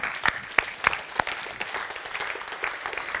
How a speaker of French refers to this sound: vous pouvez applaudir le Seigneur.